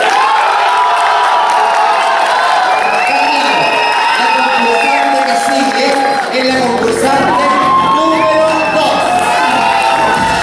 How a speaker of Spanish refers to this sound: Se fue por aplauso. Aplauso por la concursante número uno. Aplauso por la concursante número dos.